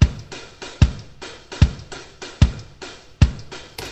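A swung drum beat: a deep kick thumps steadily, roughly once per bar, while crisp hi-hats tick in an uneven, shuffling rhythm between the hits, loud with no voices.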